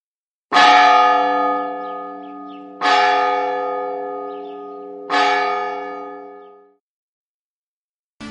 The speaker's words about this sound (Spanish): La una del mediodía. Suenan las campanas como cada día para anunciar que han terminado las clases.